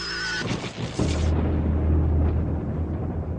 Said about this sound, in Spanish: En Las Vegas, retumba la tormenta en el desierto.